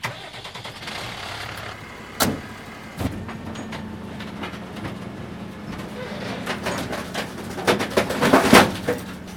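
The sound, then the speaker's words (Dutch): A heavy garbage truck engine drones steadily while its compactor crunches a large, bulky object, with sharp cracks and snaps that build into a louder splintering burst near the end. “We gaan iets groots in jouw uh, eh, smalspoorwagen gooien.”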